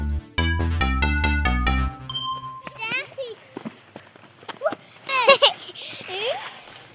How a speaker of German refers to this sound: Es ist Nachmittag. Die Sonne scheint und von draußen ist Kindergeschrei zu hören.